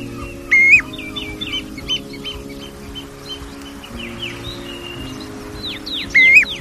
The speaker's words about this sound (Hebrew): כנראה שאין קלישאה גדולה יותר מזו שמתארת את הגליל עם ציוצי הציפורים ברקע.